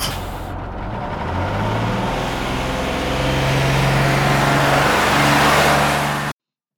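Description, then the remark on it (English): A heavy bus engine rumbles and revs up, its low drone shifting pitch as it pulls away and gathers speed, loud throughout, with a hiss of air near the start. “It's a bus. Rolling.”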